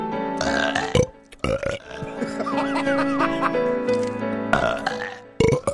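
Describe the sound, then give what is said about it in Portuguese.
A long, loud, deliberate burp rumbles and warbles for several seconds, its low voiced tone wavering in pitch, with brief bursts of noise at the start and end and laughter around it. “Tá comendo agora? Então aproveita pra fazer a digestão aqui, ó.”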